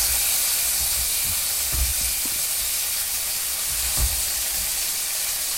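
Steady sizzling of pork belly frying in a frying pan on a portable gas stove at home, recorded with a TASCAM DR-07X, a dense crackling hiss that runs unbroken throughout, with a few soft low bumps underneath and no one speaking.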